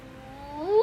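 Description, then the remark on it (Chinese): A voice imitates a fire engine siren with a single wailing tone that slides upward in pitch and swells louder toward the end, lasting under a second with no other sounds. “救火车一路上闪着红灯，鸣叫。哎，救火车鸣叫一下，怎么？救火车怎么叫？”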